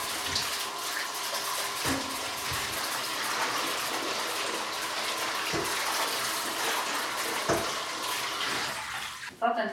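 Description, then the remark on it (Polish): Steady running warm tap water pours continuously, with occasional soft knocks and clatters of peeled potatoes being carefully rinsed and handled under the stream to wash off soil, fairly loud throughout. “Teraz bardzo starannie trzeba je wypłukać pod bieżącą ciepłą wodą, dlatego że często zostaje po prostu na nich ziemia.”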